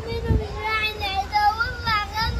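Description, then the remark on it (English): A young girl crying in wavering, high-pitched wails that rise and fall continuously as her 10-year-old brother sits in the back of an Israeli police car, moderately loud over a busy, noisy background. “This is the sound of a young girl crying as her brother, 10 years old, sits in the back of an Israeli squad car.”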